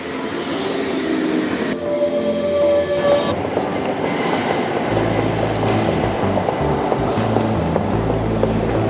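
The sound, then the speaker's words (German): A regional train pulls in at platform 1 of a station with a steady, loud mechanical rumble, a brief high tonal squeal partway through, then deeper heavy rolling noise as it slows. “Gleis 1 Einfahrt RB hoch.”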